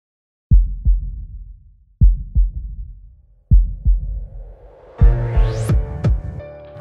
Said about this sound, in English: All right, all that and more, but first, hey DJ, give me that heartbeat.